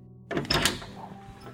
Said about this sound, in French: Et pire que ça, durant cette plaie de l'obscurité, les Égyptiens entendaient de drôles de bruits, des portes qui s'ouvraient